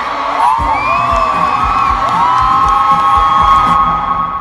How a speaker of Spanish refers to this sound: Vamos a gritar fuerte para que nos escuche el presidente y nos escuchen en todo el mundo. Por todas nuestras compañeras, vamos a gritar fuerte, todas, que nos escuchen.